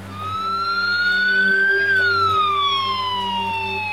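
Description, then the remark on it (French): A special phone ringtone assigned by provincial authorities to people blacklisted by the Dengfeng city court, sounding like a loud wailing siren, one long tone that slowly rises and then sweeps back down, over a steady low hum with no talking. “Dans une autre province, les autorités leur ont même attribué une sonnerie de téléphone particulière.”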